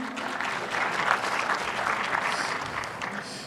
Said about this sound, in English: Yeah, clap your hands. Absolutely.